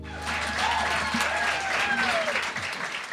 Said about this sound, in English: It's bittersweet sharing these wonderful stories from that last event, but great to hear the audience once more. Enjoy.